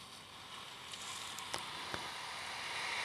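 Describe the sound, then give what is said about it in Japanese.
Gentle ocean waves in the Animal Crossing video game lap in a soft, steady wash of water, quiet and continuous, with a few faint splashy clicks rising briefly above the hiss. No one speaks. “波のさざめきの音して、これ聞こえてるこれ。”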